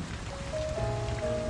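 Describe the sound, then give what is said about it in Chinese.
Wind-driven rain patters steadily against the large glass window of a coffee shop, a dense, even wash of small drops with a faint low hum and a few thin tonal lines underneath, no voices. “雨点顺着风碎在了咖啡店那块巨大的玻璃上，”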